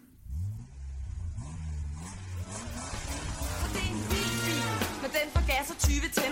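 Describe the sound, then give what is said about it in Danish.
A car engine runs and revs, its low rumble rising and falling in pitch with a rough, raw edge, steady throughout. “Motoren syder med en lyd, der lyder for rå.”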